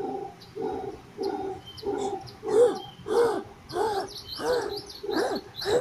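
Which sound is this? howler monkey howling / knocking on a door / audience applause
howler monkey howling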